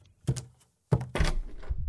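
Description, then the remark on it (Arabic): A door is opened: two solid wooden thunks from the latch and handle, a short pause, then a louder clunk and a shuffling rattle as it swings open. “استنى كله تمام افتح الباب”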